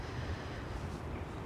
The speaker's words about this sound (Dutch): Je hoort de geluiden van de snelweg